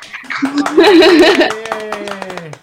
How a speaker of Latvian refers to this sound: Aplaus!